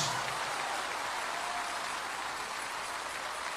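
An audience breaks into steady, sustained applause given in glory to God, a dense wash of many hands clapping at once that stays fairly even in loudness throughout, with no one speaking over it.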